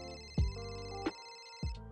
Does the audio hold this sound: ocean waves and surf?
no